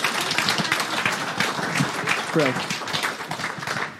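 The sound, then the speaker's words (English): An audience applauds steadily for about four seconds, a dense, loud wash of many hands clapping, with a few voices calling out partway through. “Let's give these guys a massive round of applause.”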